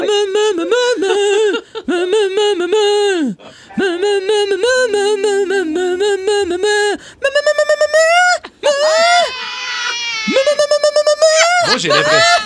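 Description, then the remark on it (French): A voice hums a song as long, drawn-out cow moos, loud, the mooing notes sliding up and down with short pauses and a few choppy, stuttering bursts near the end. “Tu vas devoir fredonner ta chanson en vache.”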